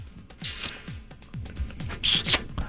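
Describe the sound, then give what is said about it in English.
Wet, clicking mouth noises, a voice imitating someone chewing gum with a steady run of smacks and squelches, no words spoken. “Like, look at the way that you chew it. If she does it just like this, look.”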